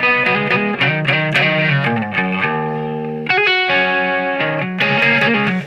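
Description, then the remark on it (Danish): An effected electric guitar strums a sequence of rich, sustained chords with a bright top note ringing steadily through the changes, drenched in chorus and mild distortion, played alone. “Nå, men man, tager, man, man, man pluder ligesom rundt i akkorderne på sådan en, hvor der lidt er to toner meget. Altså, den tone i toppen hele tiden.”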